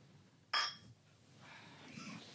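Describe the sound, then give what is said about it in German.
Glasses of Helles beer clink together once in a bright toast, with a short ringing tail, followed by quiet shuffling and faint voices. “Stößchen.”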